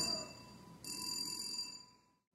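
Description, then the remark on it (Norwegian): A fire alarm bell goes off during a sermon, ringing continuously with a steady, high metallic clang. It grows louder partway through, then stops abruptly just before the end. No one speaks. “Det er flott når vi forkynner evangeliet så sterkt at det til og med brannalarmen slår ut.”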